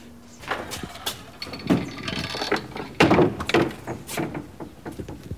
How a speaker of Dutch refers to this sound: Terwijl nu het raam voor ons wordt opengezet om wat meer licht te krijgen hier.